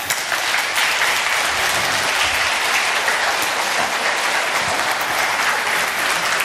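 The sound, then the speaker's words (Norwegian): An audience applauds the jippikor choir steadily, a dense wash of many hands clapping at an even, loud level for several seconds with no speech over it. “Og en god applaus til jippikoret.”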